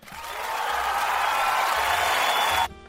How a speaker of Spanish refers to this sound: Aplauso para el parcero, por favor.